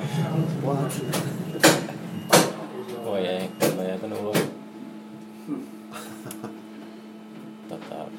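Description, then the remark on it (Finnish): Several sharp clunks and thuds of doors sliding and shutting, spaced a second or so apart, with people talking in the background and a steady low hum lingering afterward. “Otetaan vaiheessa ne ovet.”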